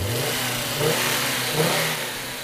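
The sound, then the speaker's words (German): A five-cylinder car engine revs while standing still, its steady mid-low rumble swelling in two short blips before settling back toward idle, loud with no voices. “Hört man den Fünfzylinder schon richtig schön”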